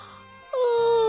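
A big, drawn-out, tired yawn voiced by a person for the child Barney lying on his bed at bedtime in a story, starting loud and abruptly after a quiet moment, then holding a steady, slightly falling moan-like tone until the end.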